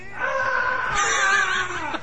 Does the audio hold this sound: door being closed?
no